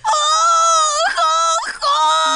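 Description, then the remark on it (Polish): A voice imitates the character Cesia crying and screaming: loud, drawn-out wavering wails broken into three sobbing stretches by short catches of breath. “Biedna Cesia w płacz i w krzyk wchodzi mama.”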